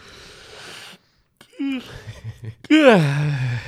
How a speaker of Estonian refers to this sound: mõnus siuke haigutus tuli, tuli peale sügavalt.